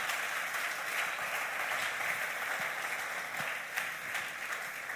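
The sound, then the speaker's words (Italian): Sustained applause from an audience, offered to the Lord, a dense steady wash of many hands clapping at fairly even loudness for the full five seconds, with no voices over it. “E io gli farei un altro applauso al Signore.”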